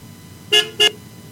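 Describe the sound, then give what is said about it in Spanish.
Two short, sharp honks from the horn of a small truck in quick succession, loud, with a brief gap between them over a low background rumble. “Sí, traes el claxon, hoy falló el claxon. Ahí está, el claxon.”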